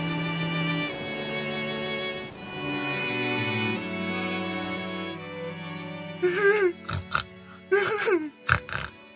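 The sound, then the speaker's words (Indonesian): Sustained tonal notes fill the opening seconds, then a run of loud, wet nasal sniffles and snorts arrives in quick, uneven bursts. “Kenapa lagi kamu? Kok jadi ingusan?”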